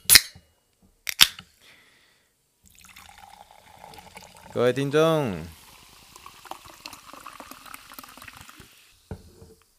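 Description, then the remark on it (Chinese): Two sharp cracks from a bottle of sparkling water being opened, then a steady bubbly fizzing hiss that runs for several seconds while a voice briefly speaks over it. “都让我们一起听听气泡水的声音。”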